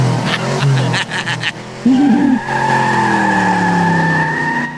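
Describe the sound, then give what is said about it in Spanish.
A car engine revs and accelerates while tires squeal with a long rising screech, loud, with sharp clattering bursts early on. “Con ese ruido, hijo, pon un corrido o algo, ya me estoy acelerando.”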